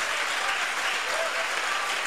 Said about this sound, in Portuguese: vamos desocupar as nossas mãos e fazer o possível para a igreja da Lapa em São Paulo dar a melhor salva de palmas que já foi dada para a palavra de Deus.